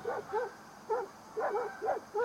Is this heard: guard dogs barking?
yes